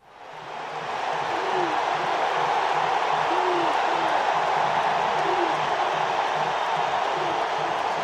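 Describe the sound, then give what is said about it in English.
A dense, steady roar of a large sports game crowd fades in and holds, with occasional low hooting calls rising above the wash of voices. “Or a sports game.”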